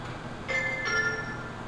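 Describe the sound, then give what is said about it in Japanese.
A local train bound for Nagatoro and Mitsumineguchi departs Nagatoroguchi station in Japan, marked by a brief steady electronic tone that starts partway through and holds over a low rumbling background, with no talking. “長瀞口、発車いたします。”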